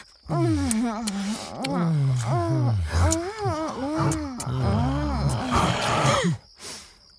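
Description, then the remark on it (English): A voice imitates a werewolf, producing a loud run of growling moans and howls with swooping, wavering pitch, lasting about six seconds before breaking off. “I think it's a. a. a werewolf!”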